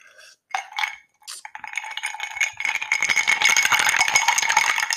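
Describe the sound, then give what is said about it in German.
Ice cubes clink and rattle inside a small glass, starting with a few separate knocks and building into a dense, continuous jangle that stays fairly loud. “Äh, das sind die Eiswürfel schön im Gläschen verstaut.”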